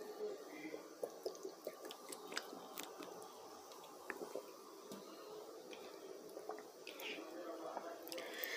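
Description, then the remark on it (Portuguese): Quiet sips of tap water from the SEDAI (CEDAE) water utility of Rio de Janeiro, from a glass, with small wet mouth clicks, slurps and swallows scattered irregularly over a soft background hiss; no one speaks. “Mas agora tô voltando a beber água da SEDAI, vamos ver, né?”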